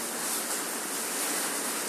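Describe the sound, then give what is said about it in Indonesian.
Steady, soft hiss of light rain falling, a dense even patter spread across the highs with no pauses, no voices and little low rumble. “Ya singkat cerita, sambil menemani rintikan hujan yang, dan semoga kita semua sudah uh, berdoa ketika hujan”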